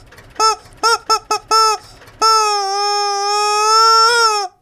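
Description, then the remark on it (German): A voice imitates a mournful, specially developed siren that sounds very sad: five short, whiny bursts in quick succession, then one long, steady, wavering wail that fades at the end. Loud, with no other sounds. “Aber wir haben ja noch eine ganz besondere Sirene, ja. extra nur für uns entwickelt.”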